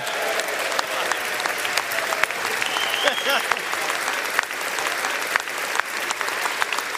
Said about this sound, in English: Members of both political parties welcomed him back to Congress with a rousing ovation, and with good reason.